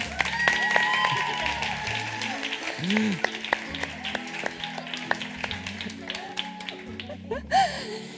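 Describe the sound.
An audience at the Espacio Madresfera event applauds the speakers steadily for several seconds, a dense crackle of many hands clapping, with scattered voices and a few cheers rising over the noise.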